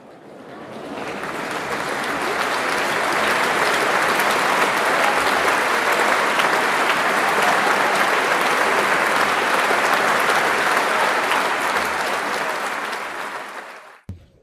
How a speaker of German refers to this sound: So, jetzt sind wir, jetzt sind wir hier gerade direkt rausgekommen aus der, aus der äh, Veranstaltung. Ja. Mit lautem Applaus.